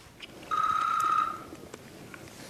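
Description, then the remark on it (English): A single electronic phone ring, a steady high-pitched tone lasting about a second, stands out clearly above quiet room noise before cutting off; it is a call late at night in Flake's office, from Lindsey Graham. “As Flake's recounting all this to me late night in his office, we're interrupted by a phone call.”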